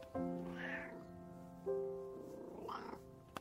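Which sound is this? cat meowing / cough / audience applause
cat meowing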